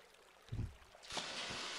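A low watery plunge at about half a second, then a broad rushing splash that swells and keeps churning, like a body dipping into water and stirring it up, as a man dips himself in the Jordan River once more, with no talking.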